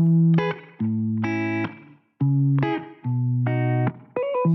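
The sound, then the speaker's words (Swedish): The intro of a pop song released the previous Friday, with bright, effect-heavy synth or guitar chords in a few repeating, punchy phrases. Loud, with no singing yet. “vi slänger oss in i din låt”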